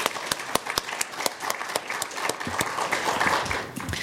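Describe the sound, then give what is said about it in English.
An audience applauds for Dr. Monica Gandhi, the physician who organized the program and the evening's first speaker, a dense wash of many hands clapping with a few sharper individual claps standing out, sustained at an even, moderate loudness throughout. “So a big round of applause for Dr. Gandhi.”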